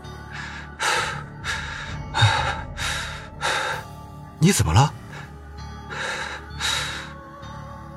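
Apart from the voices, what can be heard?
heavy panting breaths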